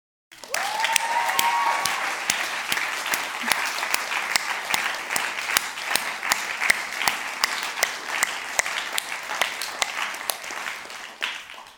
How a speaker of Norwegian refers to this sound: Så skal vi rett og slett være så rar at vi gir Jesus en himla applaus.